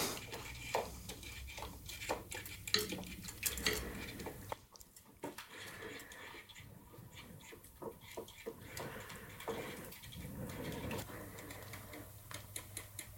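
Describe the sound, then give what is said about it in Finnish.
A spoon scrapes and taps against the inside of a pot in quick, irregular strokes while a custard mixture of sugar, flour and egg in cream and milk is heated and stirred, fairly quiet, with a low steady hum underneath. “Mutta kuumenna ja sekoita nyt, kun sä oot kaatanut ton sokerivehnä ja osuola seoksen tonne kermamaitoon niin nyt kuumennetaan, sekoitetaan.”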